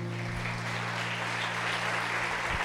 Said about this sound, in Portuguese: Aplauda o Senhor, amém.